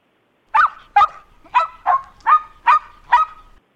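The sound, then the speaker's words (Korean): A small dog barks seven times in a steady, evenly spaced series, each bark short, sharp and fairly high-pitched, with no talking over it. “좀 아, 소형견으로 바뀌었거든요.”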